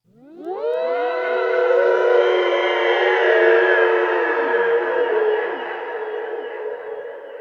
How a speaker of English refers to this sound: Then sounds start to fill the cemetery strange cries filling the sour air. A loud, wailing cry of terror startles them.